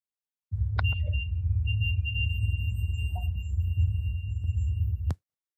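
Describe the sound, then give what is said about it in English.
A REM pod detector alarm sounds, a steady high-pitched electronic tone over a low rumbling hum. It starts abruptly, holds for about four seconds, and cuts off sharply. “So you hear the REM pod go off, and then you hear a little voice that says, that sounds like it says hide, but it's really hard to pick out.”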